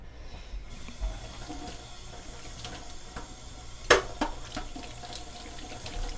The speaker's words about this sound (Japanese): えー、こまごまこう分けて洗わなきゃいけない特にザルとかフライパンとかなっていうのものはねそれ単体で洗ってねスポンジでやってあのー、ね流してっていうことを単体でやらなきゃいけないっていうちょっとめんどくせえ